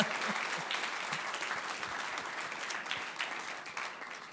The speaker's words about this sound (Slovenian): tole pa je bil gospod Primož Grašič na kitarci, a ne da dejmo zaploskati.